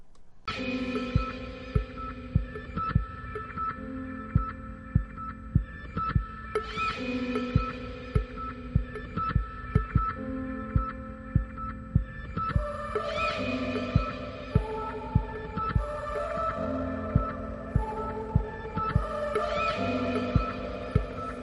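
Instrumental pop song intro: a steady, thumping low beat pulses under sustained, bright chords that shift every several seconds. No singing or talking yet.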